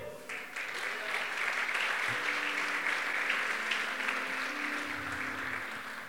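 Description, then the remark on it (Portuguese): An audience applauds the Lord steadily for several seconds, a dense wash of many hands clapping at once, with faint murmuring voices and a low hum underneath. “Aplauda, o Senhor.”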